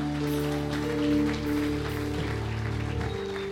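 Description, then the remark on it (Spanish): A crowd claps loudly and steadily throughout, applauding the King of Glory, a dense, sustained patter of applause blended with held keyboard or organ chords, no voices standing out. “¿Por qué no le da un aplauso al Rey de Gloria bien fuerte?”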